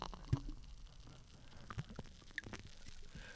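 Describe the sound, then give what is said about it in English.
Quiet fizzing of freshly poured lager, with small bubbles popping in scattered, irregular ticks over a soft hiss. No one speaks. “hear the popping of the bubbles.”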